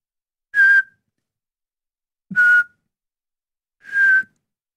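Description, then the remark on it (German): Three evenly spaced, steady high whistled tones, each about a third of a second, imitating a reversing truck's beeper. Clear, with no talking. “Wie, wie, welche, mach mal den Ton von einem rückwärtsfahrenden Lastwagen.”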